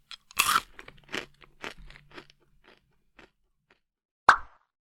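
Crunchy Uguisu Ball snack balls being chewed: a burst of loud, crackly crunches at the start, then softer irregular chewing bites that fade, and one sharp crunch near the end.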